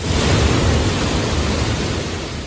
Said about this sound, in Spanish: Y este es el sonido del agua que cae en las profundidades de la cima de Villaluenga del Rosario, en Cádiz. La lluvia en esta zona de la provincia ha dejado desde el jueves 160 litros por metro cuadrado.